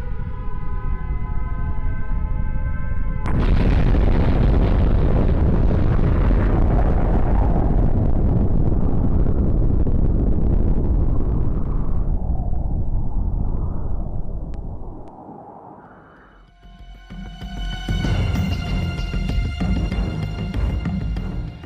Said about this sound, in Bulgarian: И ако не ви се струва плашещо познато, чуйте как звучи взривена атомна бомба